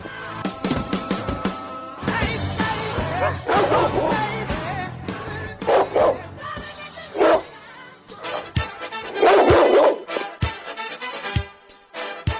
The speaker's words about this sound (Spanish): Desde las islas del Delta, entre la marea de voces de FM El Ceibal, aquí empieza a ladrar un perro negro.